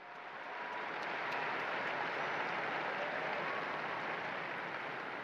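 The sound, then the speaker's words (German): Sustained applause from a large crowd welcoming the new blesseds named by the Pope, a dense wash of clapping that swells in the first second and holds steady and loud throughout, with no voices over it. “Begrüßen wir die neuen Seligen mit einem großen Applaus.”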